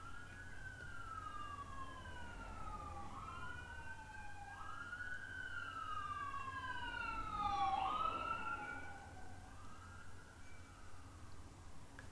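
An ambulance siren wails outside, its rising and falling tones overlapping as it approaches, grows loudest while passing, then recedes, with a low rumble of traffic underneath and no voices.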